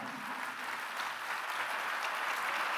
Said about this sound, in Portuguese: Aplauda mais forte aí, esse pessoal pode aplaudir. Pode aplaudir, pode aplaudir. Pode aplaudir mais ainda.